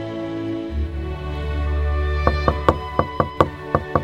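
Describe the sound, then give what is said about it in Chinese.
A rapid run of about eight sharp knocks on a door breaks in after a low, steady droning background, the raps coming quickly and urgently in a slightly uneven rhythm. “这时，外面突然响起一阵急促的敲门声。”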